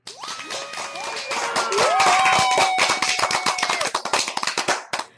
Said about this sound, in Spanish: Nancy, este aplauso es para ti.